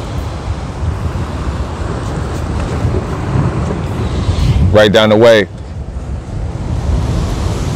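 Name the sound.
waves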